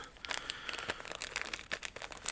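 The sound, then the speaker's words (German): Crisp crinkling of a small plastic bag, packed inside the bag for a Tecotec case, being handled, with rapid irregular rustles and crackles running continuously and fairly quietly, no voices. “Da hat man in der Tüte für dieses Tecotec-Gehäuse noch eine kleine Tüte”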